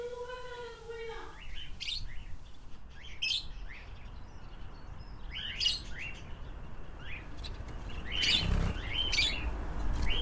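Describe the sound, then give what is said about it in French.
Parakeets in an aviary chirp and tweet in quick, scattered bursts over a steady background hiss, with several calls overlapping as many small birds gather together. “La volière”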